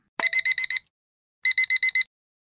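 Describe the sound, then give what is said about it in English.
An alarm clock rings in two bursts of five quick, bright electronic beeps each, separated by a short pause, clear with no talking. “So, what's that sound? Shout it out. An alarm clock.”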